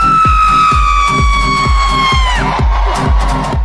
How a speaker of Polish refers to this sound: Ten krzyk, który usłyszeliście przed chwilą, to jest e, krzyk, który słychać na imprezie urodzinowej niejakiego Jeppa Gambardelli z filmu Wielkie Piękno. Paolo Sorrentino, film z 2013 roku.